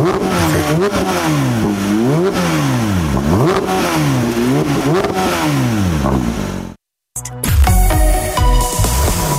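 The engine of a new Porsche 911 GT3 revs hard during a test drive, its pitch climbing and dropping repeatedly through gear changes for several seconds, then cuts to a brief silence and a different, busier burst of sound.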